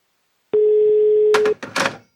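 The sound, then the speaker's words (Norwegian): A steady, loud telephone tone holds for about a second, then gives way to a few short clicks and bursts of keypad-like noise on the line of a phone call made by an inmate out of a prison, heard alone without any talking. “Akkurat sånn høres det ut når vi innsatte ringer ut av fengselet.”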